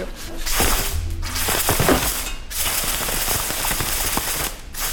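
In a performance by a group, compressed air from an opened air-compressor valve rushes out in a loud, steady hiss, punctuated by rapid irregular slapping and rattling as the attached thin hose whips around like a little whip, with brief dips in the flow.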